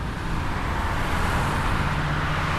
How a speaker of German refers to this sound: Die gleiche Autobahn vier Stunden vorher. Im Sekundentakt rauschen hier Autos vorbei. Der Feierabendverkehr ist in vollem Gange.